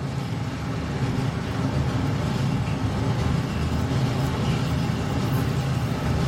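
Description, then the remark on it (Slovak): An express train bound for Budapest rolls past with a steady, heavy rumble, dense low-pitched roaring and rattling that holds at an even loudness for the whole stretch, with no voices. “1750 rýchlik do Budapešti prechádza Čas.”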